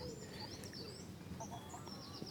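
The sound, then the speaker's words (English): Hens cluck softly and intermittently outdoors while pecking in the grass, with faint chirping birdsong high above a steady low background hum. “Seeing them cluck about and get on with each other.”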